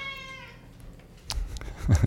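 A cat gives a single short, fairly quiet meow with a falling pitch, followed by a few soft bumps and rustling thuds.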